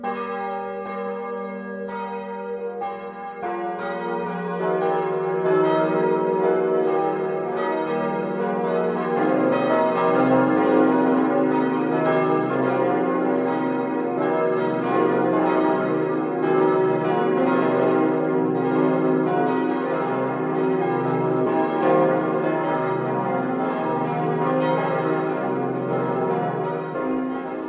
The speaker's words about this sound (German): Es ist 12 Uhr. Das Mittagsläuten kommt heute aus Wald im Allgäu. Georg Impler hat den neuen Glocken der Nikolauskirche seine Aufwartung gemacht.